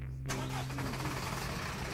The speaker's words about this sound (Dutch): Oh, wacht, er gaat een kluswagen voorbij. Dit is trouwens de eerste auto die ik hier in 10 minuten heb gezien. Het is hier uitgestorven.